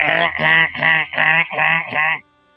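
An alarm clock's bird-call tone blares six loud, nasal honking squawks in a quick, steady rhythm, clear with no talking, then cuts off abruptly.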